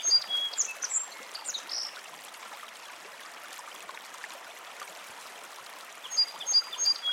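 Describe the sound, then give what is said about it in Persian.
A gently flowing river babbles steadily past smooth stones beside a meadow of wildflowers, with bright bird chirps and short whistled calls bursting in near the start and again at the end. No one speaks. “تصویر کلی رودخانه سنگ های صاف و سیغلی اطراف رودخانه علفزار گلهای وحشی”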